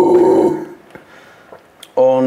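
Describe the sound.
A voice demonstrates a scream vocal technique: a drawn-out, raspy throat-clearing growl made at the top of the mouth, a half-second rumbling burst, then a quiet gap with faint breathy noises before a second loud growl starts near the end.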